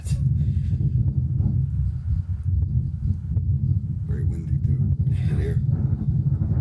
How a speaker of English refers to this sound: And it was the wind is so loud. I'm actually talking, but you can't hear me because the wind is louder than my voice. Wow.